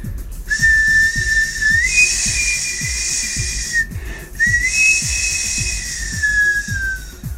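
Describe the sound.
A person whistles two long, breathy phrases imitating a knife sharpener's whistle, each stepping up and then sliding slowly downward, fairly loud over a soft, steady thumping beat.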